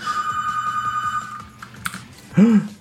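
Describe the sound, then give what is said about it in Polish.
A telephone rings with a steady, high electronic tone for about a second and a half over light tapping clicks, then stops; a brief louder low sound follows. “Nintendo dzwoni.”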